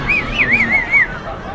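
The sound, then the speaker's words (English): A crowd roars and cheers throughout, with a shrill, warbling whistle cutting through the noise for about a second. It is loud, a short burst of stadium-like excitement. “Crowd, crowd goes nuts.”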